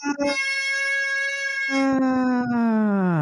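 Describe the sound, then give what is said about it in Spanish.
The first siren of the day wails with a loud, steady, buzzy tone, then drops lower and glides slowly downward in pitch over about three seconds. No one speaks. “primera sirena del día.”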